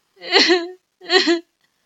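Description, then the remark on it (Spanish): A girl whimpers and sobs in two short, wavering bursts separated by a brief pause, with no other voices. “Ay, hola hijita, ¿qué te ha pasado? ¿Por qué estás llorando?”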